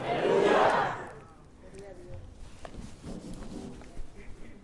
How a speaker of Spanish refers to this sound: Queremos darte otro aplauso fuerte en el nombre de Jesús. Fuerte, fuerte.